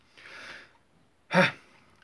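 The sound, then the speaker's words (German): A soft breathy intake followed by a single short, sharp cough, loud and abrupt, with no talking. “Entschuldigung, es war bloß wieder ein kurzer Husterer.”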